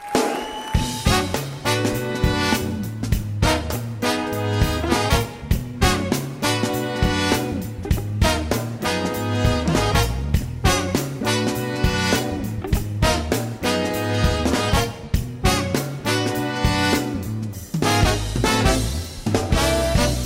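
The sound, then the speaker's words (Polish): A soul song from a singer's debut album plays loud and steady, with a regular rhythmic beat, warm bass, and full layered instrumentation running continuously throughout. “Jej debiutancki album o tytule … okazał się strzałem w dziesiątkę. Posłuchajcie sami.”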